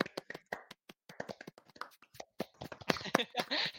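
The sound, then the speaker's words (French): A small group of four people applauding themselves, with quick, uneven, overlapping claps that grow denser and louder toward the end. “On s'applaudit. On peut s'applaudir.”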